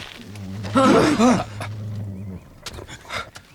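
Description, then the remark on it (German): A dog growls low and steady for about two seconds, the rumble swelling louder midway before fading, followed by a few faint rustling sounds. “Braver Hund.”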